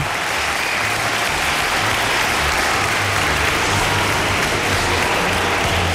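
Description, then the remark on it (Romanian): Sustained applause for doctors and medical staff, a dense, steady wash of many hands clapping at even loudness for the whole stretch, with no voices rising above it. “chiar și așa medicii uh, și uh, tot personalul medical merită aplauzele noastre pentru efortul pe care îl fac și recunoștința.”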